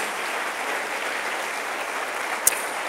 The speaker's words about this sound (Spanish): ¿No crees que esto merece un aplauso a Él?